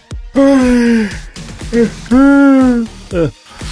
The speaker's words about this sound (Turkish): Şuna bak esnemin çatı ayrıldı esnemekten ya çenemin. Bu nedir ya nasıl bir esneme baksana.